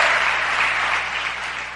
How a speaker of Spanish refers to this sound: Dele ese aplauso fuerte al que vive, aleluya.